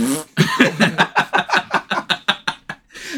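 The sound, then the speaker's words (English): A loud, drawn-out fart sound effect played by Amazon's Alexa on a Fire device rattles through a quick series of sputtering bursts for about three seconds, played on its own with no talking over it. “dude, do the powerful fart. And she she rips ass.”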